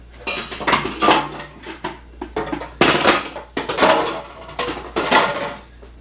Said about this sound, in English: This is my go-to uh, soft-boiled, hard-boiled egg cooker. This thing works amazing. It's sold under many different brand names.